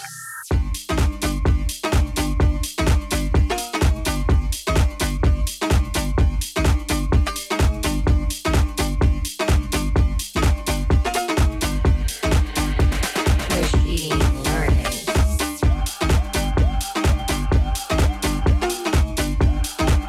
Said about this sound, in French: on va se l'écouter parce que le morceau, à l'écoute, il est très motivant aussi